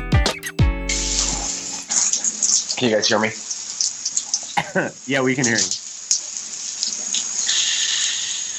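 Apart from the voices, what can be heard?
shower water running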